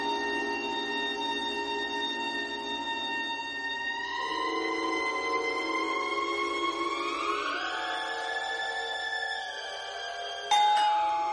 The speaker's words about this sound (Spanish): Sonó el timbre de la puerta y ella fue a contestar, llevando en la mano el paquete aún no abierto.